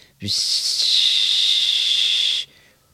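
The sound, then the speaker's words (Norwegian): A person imitates a primus camping stove's hiss with a steady, breathy 'shhh' held for about two seconds, fairly loud, starting abruptly and cutting off cleanly. “Opp med glidelåsen, ta på primusen og høre”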